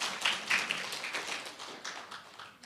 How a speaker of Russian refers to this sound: Давайте похлопаем тем людям, которые заходили в 40-дневный пост. Вы молодцы.